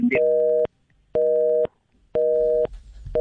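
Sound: phone busy tone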